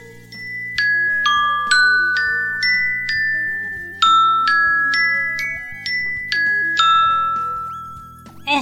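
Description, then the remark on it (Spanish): The iPhone ringtone Blink plays a bright, bell-like electronic melody of quick tinkling notes in repeating phrases over soft sustained tones, fairly loud with no voices, ending with a brief rustle. “Seleccionado. Parpadeo.”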